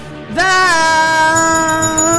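A single bell is struck and rings out with a bright, sustained metallic tone, its harmonics fading slowly over about two seconds with no talking.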